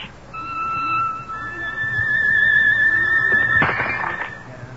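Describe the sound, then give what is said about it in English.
A steady, high bowed violin tone, played at the same pitch as a champagne glass, is held for several seconds, rising slightly in intensity, then ends abruptly in a short, bright burst as the champagne glass on a mantelpiece shatters. “Now, I draw my bow across the violin strings at the same pitch as the champagne glass.”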